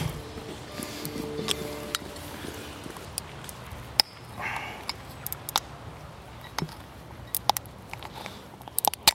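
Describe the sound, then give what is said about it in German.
A beer bottle being pried open with a key: a run of sharp metallic clicks and scrapes at irregular intervals over a steady background hiss, with one louder snap partway through. “Ne, mit dem Schlüssel mache ich den mal auf.”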